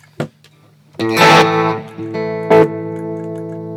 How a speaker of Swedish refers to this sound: Innan då, Tube Screamen i sig, den låter ju på detta vis.